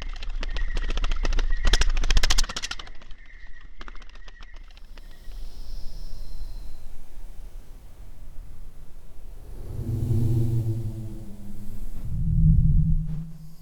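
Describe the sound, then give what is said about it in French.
A slowed-down recording of a moth recorded in the countryside: a loud, rapid train of fluttering wingbeat pulses for several seconds, then a quieter stretch, followed by deep droning hums that swell and fade. “Ça, c'est un papillon de nuit que j'ai enregistré à la campagne, puis j'ai ralenti.”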